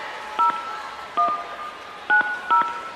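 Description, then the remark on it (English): Four short telephone keypad tones beep at uneven intervals as a phone number is dialed, each a brief dual-pitched note, clear with a faint background hiss and no talking. “I'll try it again. It's ringing.”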